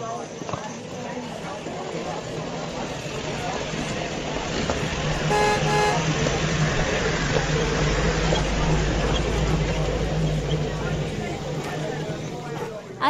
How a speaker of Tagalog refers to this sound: Eh marami naman jeep at tricycle ah.